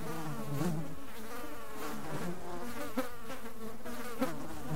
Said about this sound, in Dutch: maar aan het echt vervelende lawaai als je van je terras van de Provence naar binnen gaat om te gaan slapen en dan begint het, het gezoem van muggen.